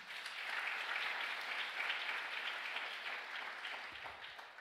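An audience gives a loud round of applause to 'papá', clapping steadily for several seconds, a dense, even wash of many hands at a constant loud level with no voices over it.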